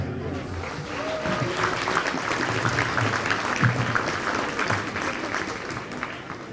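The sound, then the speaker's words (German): Steady audience applause for Dr. Werner Klein, many hands clapping in a dense, even patter that holds at a fairly loud level for several seconds without letting up. “Und jetzt bitte nochmal einen kräftigen Applaus für Herrn Dr. Werner Klein.”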